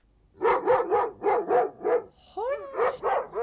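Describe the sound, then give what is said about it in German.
A large dog burps in a rapid series of throaty, voiced bursts, about eight in a row with a brief rising whine midway, loud with no one talking. “Es war ein Hund.”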